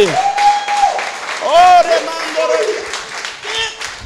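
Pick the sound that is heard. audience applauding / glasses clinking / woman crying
audience applauding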